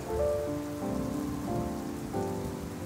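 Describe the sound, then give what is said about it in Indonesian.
Heavy rain pours steadily onto a hard surface in a dense, continuous hiss, with soft sustained musical chords shifting gently underneath. No one speaks. “Dan bila hujan ini mereda di tengah malam”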